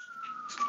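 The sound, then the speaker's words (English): A siren in New York City wails in a steady, slowly falling tone, sounding faint against a low background hum of traffic. “And I love, by the way, that New York City verisimilitude of the siren in the background.”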